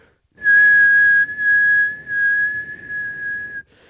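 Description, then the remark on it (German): A steady, piercing high-pitched tone from a timecode vinyl record, which carries an hour of whistle tone whose frequency keeps changing across the record, holds for about three seconds over a gritty, rumbling noise bed, loud, with no voices. “Es gibt sogenannte Timecode-Platten. Die hören sich, wenn du die, die original einhören würdest, die ganze Zeit so an.”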